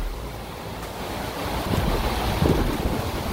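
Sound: hurricane wind and rain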